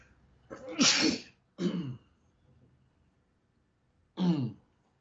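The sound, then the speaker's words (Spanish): A sneeze, somewhat distant and muffled as if turned away, followed by two short throat-clearing bursts separated by a quiet pause; no talking. “Bueno, les ahorré el estornudo, por lo menos lejos del micrófono.”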